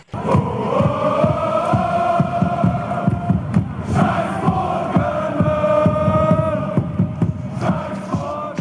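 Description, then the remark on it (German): Hundreds of FC Basel football fans protesting in the street in Basel, Switzerland, against club president Bernhard Burgener and demanding his departure, chant loudly in unison outdoors, voices sustained and rhythmic with repeated rising phrases, punctuated by sharp claps or drum hits throughout. “Hunderte Fans des FC Basel gingen auf die Straße gegen den Präsidenten.”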